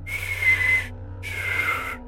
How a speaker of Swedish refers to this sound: Det jag får höra oftast från vänner och familj när jag försöker vissla är att det låter som en läskig vind.